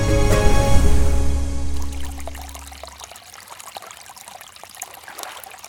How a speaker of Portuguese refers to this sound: Só o barulhinho de chuva, de rio, de mar já acalma, né? E não é à toa. Água é o elemento essencial à vida.